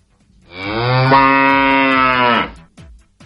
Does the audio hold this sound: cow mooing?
yes